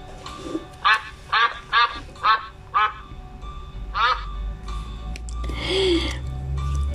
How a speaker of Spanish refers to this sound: Y por último, el pato graznó.